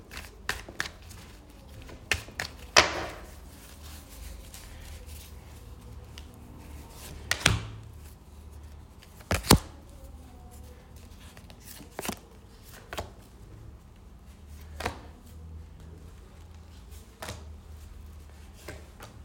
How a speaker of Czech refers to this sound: Já už si dívám na vaši fotku, míchám u toho karty, tak se na to podíváme.